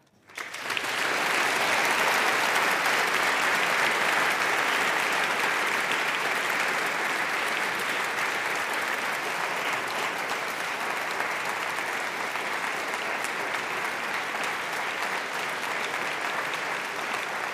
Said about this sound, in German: Kleinen Moment, kleinen Moment, kleinen Moment. Sparen Sie sich noch ein bisschen Beifall auf,